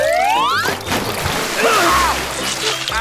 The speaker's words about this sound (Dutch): het water is de hele tuin doorgespetterd. Het badje is meteen leeg.